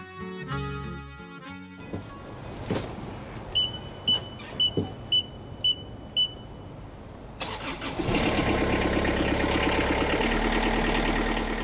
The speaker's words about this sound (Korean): 저기요, 지금 뭐 하세요? 지금 잔디 깎는 중입니다. 오늘 하루 경기가 없는 축구장. 그 한가운데서 줄을 맞춰가며 잔디를 깎는 사나이가 있습니다.